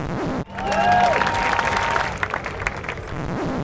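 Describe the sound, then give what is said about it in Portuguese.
A burst of steady, dense applause from a small crowd for the Wi-Fi company Rucos, sustained for about three seconds, with a brief rising whistle-like tone near the start and no talking. “Gente, uma salva de palmas para Rucos.”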